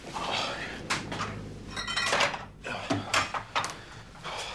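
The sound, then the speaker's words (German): Busy clattering as a bottle of apple spritzer is pulled from the fridge in a shared-flat kitchen: a door handled, several sharp glassy clinks and rattles of items shifting on shelves, with no one speaking. “Till hastet in blauer Daunenjacke herein und nimmt sich eine Flasche Apfelschorle aus dem Kühlschrank.”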